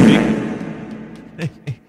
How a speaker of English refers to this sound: How many different fart sounds do we I tell you what, do? that is in a very acoustically uh, enabled room, by yeah. the way.